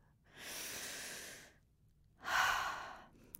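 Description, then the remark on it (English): A slow, audible inhale lasting about a second, a short pause, then a stronger, breathy exhale, with no talking. “So before I start this, I just want to say to everyone, if this is you, just take a deep breath right now. One deep breath.”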